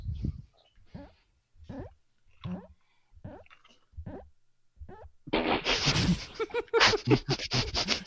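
A drink glass rolls against a microphone: a series of short, uneven bumps, then about three seconds of loud, harsh scraping and rumbling rubbing right on the mic.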